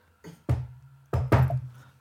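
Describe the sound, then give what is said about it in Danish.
Knocking on a hard surface, resonant: four firm raps grouped in two quick pairs with a short pause between them, tapping out the letter S in Morse code. No voices. “Her, her, øh, her øh, øh, banker jeg lige bogstavet S.”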